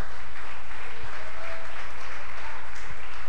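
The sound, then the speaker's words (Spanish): An audience claps hands for God in a steady, dense wash of applause that stays even from start to finish, with no voices standing out. “¿Cuántos están aquí, hermanos? Pueden dar palmas a Dios.”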